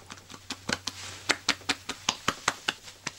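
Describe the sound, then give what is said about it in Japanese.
A quick run of about a dozen soft, fleshy slaps on a person's belly, evenly paced at a brisk rhythm, each pat short and moderately loud with a low hum underneath; the pats sound soft, like bread dough being kneaded. “なんか買ってお腹鳴らさないでください ペチペチペチペチ音がして。”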